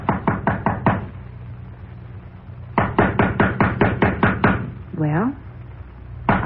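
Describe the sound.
Rapid knocking on a door in bursts: about five quick raps, a pause, then a longer run of about ten hard knocks, followed by a short rising-and-falling voiced sound and one more knock.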